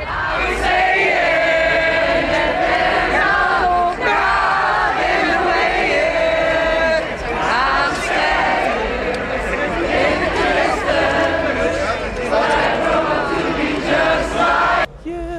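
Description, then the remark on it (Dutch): A big outdoor festival crowd at the Pinkpop main stage sings together a cappella without instruments, many voices blending into a loud, continuous, wavering chorus that carries on steadily with only brief dips. “hele publiek eh, ging daarin in mee, uiteraard, uiteraard.”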